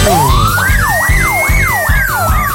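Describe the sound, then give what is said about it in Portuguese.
A police car siren swells upward, then cycles in quick rising-and-falling wails, loud, over a steady low rhythmic thumping underneath. “Ah, isso é a polícia.”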